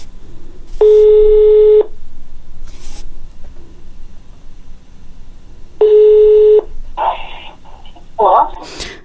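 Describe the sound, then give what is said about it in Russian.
Two long, steady telephone ringing tones, about a second each and spaced several seconds apart, followed by a few brief chirpy bursts near the end, over a faint background hiss. “Я позвонила ей, чтобы узнать ее версию этой истории.”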